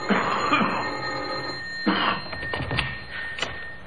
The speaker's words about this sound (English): And into that pseudo idyllic setting, across that bridge, there strode a caller. He rang the doorbell.